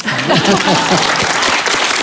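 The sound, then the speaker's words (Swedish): Steady, dense audience applause fills the whole stretch, many hands clapping in a continuous wash, with a few voices murmuring and cheering faintly underneath. “Och så får ni gärna applådera.”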